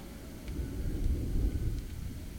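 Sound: thunder rumbling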